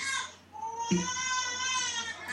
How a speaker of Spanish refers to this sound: Eh, no sé si oye mi hija llorando. Sí, pues por eso la, estamos ah, perdón. No, hombre, no hay que disculparse. Estará, tendrá que comer o tendrá que hacer algo, no sé.